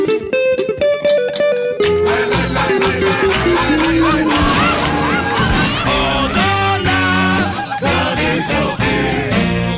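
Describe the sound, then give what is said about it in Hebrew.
Caged chickens, billed as the Nes Ziona chicken band, serve as the musical opening of a radio sketch show. They cluck and squawk loudly in a dense, continuous chorus of overlapping nasal, pitched calls that tumble together almost like a jumbled tune. No one speaks. “ותודה כמובן ללהקת תרנגולות נס ציונה שליוותה אותנו במשך כל העונה.”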